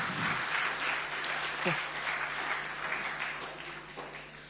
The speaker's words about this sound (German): Können wir Ihnen als Gemeindefamilie einen Applaus ermöglichen?